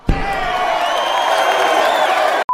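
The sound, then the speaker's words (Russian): A loud, unfriendly crowd at a rap battle roars and whoops in reaction, a dense wall of yelling voices that starts with a sharp thump, holds steady for about two seconds, then cuts off abruptly before a short electronic beep. “«Да, я просто белый мусор и чужак здесь, заявляю с гордостью», — кричал он в микрофон недружелюбной толпе на одном из рэп-поединков.”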